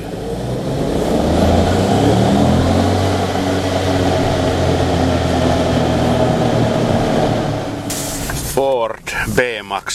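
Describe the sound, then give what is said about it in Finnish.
A 1.0-litre, 120-horsepower EcoBoost turbo petrol car engine runs steadily with a loud, even drone and low humming tones, then a voice briefly speaks over it near the end. “Yksi, yksi litrainen 120 hevosvoimainen moottori EcoBoost. Kuunnelkaa näitä moottoriääniä.”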